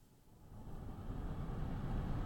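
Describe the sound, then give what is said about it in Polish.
An air purifier fan blows on its second mode, a steady low whooshing hum that swells slightly louder and then holds constant, with no voices. “No to już szumi.”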